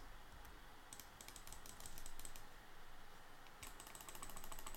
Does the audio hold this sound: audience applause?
no